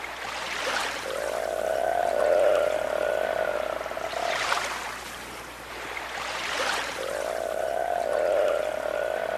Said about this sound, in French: on va découvrir que dans la partie nord de la France, on peut observer et entendre des phoques.